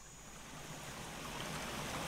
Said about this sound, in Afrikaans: Met die optel swaai dit onwillekeurig en skielik verskyn daar 'n rivier.